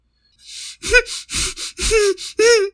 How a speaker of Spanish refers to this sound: Su respiración se agitó hasta convertirse en un llanto.